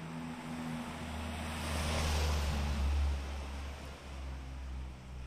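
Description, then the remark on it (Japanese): A single car on a town street approaches from the far left, swells to a broad rumbling whoosh as it passes through the center, then fades away to the far right, with steady low engine drone and outdoor ambience throughout; recorded while walking with an H3VR ambisonic recorder. “はいという感じで今車が走り抜けていくのが左遠く真ん中右そして右に遠くに行くというそういうのを感じていただけたんじゃないでしょうか”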